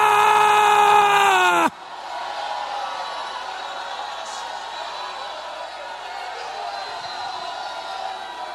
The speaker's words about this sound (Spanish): ¿Cómo se oyó ya en el grito? El grito de alabanza.